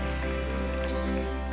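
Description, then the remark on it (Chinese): Dense, steady applause from a church audience, given to God after a prayer, a continuous wash of clapping with no pauses, over a sustained low humming tone for the whole short stretch. “我们再一次把掌声归给他，我们再一次把掌声归给他，大家请坐。”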